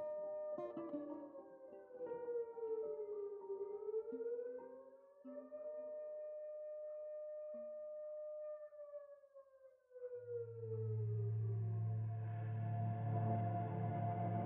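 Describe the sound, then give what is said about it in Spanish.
Air raid sirens wail on and on, their tone slowly rising and falling in long sweeps, loud and sustained, with a heavy low rumble building beneath them toward the end. “Las sirenas no paraban de sonar.”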